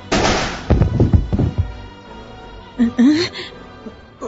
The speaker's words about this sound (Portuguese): O que é isso? Pareceu um tiro?